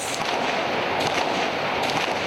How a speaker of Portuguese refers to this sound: No Líbano, um tiroteio durante protestos do grupo islâmico Hezbollah deixou ao menos seis mortos e 30 feridos. Os manifestantes queriam a saída do juiz que investiga a explosão no porto de Beirute que ocorreu no ano passado. As rajadas de tiros,